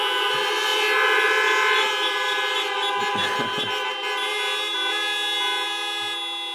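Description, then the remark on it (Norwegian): Several car horns honk together in a sustained, loud blare lasting the whole stretch, with overlapping tones and a brief swell in the middle, no voices. “Kan ikke han òg få en tut?”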